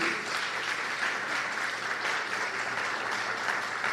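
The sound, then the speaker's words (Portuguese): Sustained audience applause for the participants present, a dense crackle of many hands clapping at steady loudness throughout, with no one speaking over it. “Que bom, a gente não pode mais cumprimentar, mas eu queria pedir uma salva de palmas por eles que estão aqui.”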